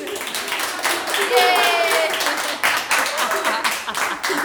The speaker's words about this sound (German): Okay. Wollt ihr so klatschen?